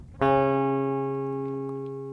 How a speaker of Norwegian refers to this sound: og da har de dratt fram en saz baglama for å demonstrere, fordi at det er et instrument som kan spille kvarttone, da. Så her har vi en tone.